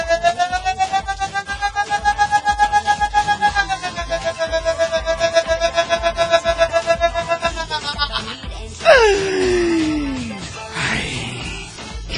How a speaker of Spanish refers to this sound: Dice patrón, ya te salió el grito mañanero.